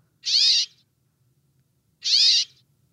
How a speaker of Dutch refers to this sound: Zijn eigen naam roepen. Cap. Met een mooi woord heet dat ook wel, een moeilijk woord ook, onomatopee. Aan het einde van de roep gaat de klank licht omhoog, alsof de vogel zijn eigen naam een beetje vragend stelt.